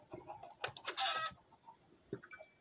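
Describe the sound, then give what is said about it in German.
A small chicken clucks in a quick cluster of short, bright, chirpy notes, followed by a pause and one more brief cluck, moderately loud, with no talking. “Dieser Seed geht an ein glückliches kleines Huhn.”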